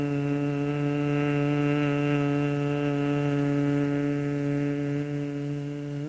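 A steady, sustained low hum held on one pitch for several seconds, rich in overtones: a long humming exhale with the lips closed during the Bhramari (bee breath) breathing exercise. No one speaks.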